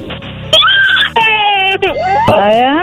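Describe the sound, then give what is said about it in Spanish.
A person fake-cries like a small child over a lollipop, letting out loud, whiny wailing sobs in several drawn-out bursts with rising and falling pitch, continuous. “Estoy llorando por una paleta, ¿eh?”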